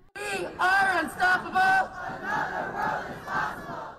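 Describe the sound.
A large protest crowd gathered outside a courthouse on a Monday chants in unison, three loud rhythmic shouts ringing out before the voices settle into a sustained, rolling chant with rising and falling swells.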